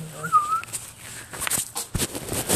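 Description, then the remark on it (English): A brief, bird-like whistle with a quick warbling glide, done by a person imitating a bird call, followed by scattered clicks and rustling handling noises. “I just whistled. I can't no, you like made a bird noise.”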